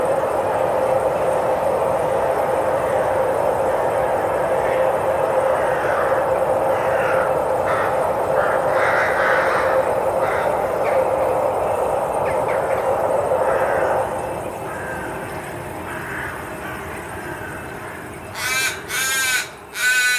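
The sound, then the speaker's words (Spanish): Several crows caw repeatedly in a city, harsh, overlapping calls over a steady low rumble, fairly loud, with a brief burst of sharper calls near the end. “Espera, esos cuervos me están, me están siguiendo.”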